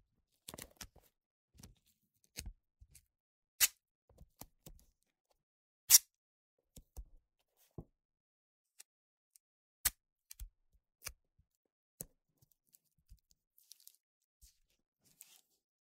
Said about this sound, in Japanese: 隙間がないようにテープで覆う。細かく切ったテープを重なって貼って丈夫にする。